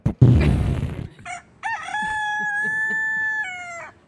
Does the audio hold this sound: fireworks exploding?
no